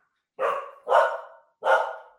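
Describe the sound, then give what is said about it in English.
A dog barks three times in quick succession, each bark loud and sharp with a short decay, the third arriving after a slightly longer pause. No voices are heard. “The dog Sorry. agrees.”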